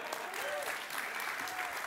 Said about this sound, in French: On peut l'applaudir sincèrement.